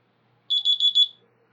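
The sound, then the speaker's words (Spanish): A high-pitched electronic mobile phone alarm tone, one set for when it is already late and time to leave, chirps in a quick run of about five beeping pulses lasting under a second, fairly loud against near silence. “Y hay otra que es para, ya, güey, ya es muy tarde, ya te tienes que ir, que es esta.”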